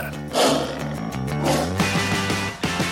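A loud tiger roar rumbles for a few seconds, deep and growling with breathy bursts swelling and fading, heard alone without any talking.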